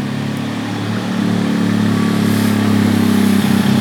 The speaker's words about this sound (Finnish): Toi oli mönkiä jonka perässä oli tuommoinen peräkärry, joka napisi.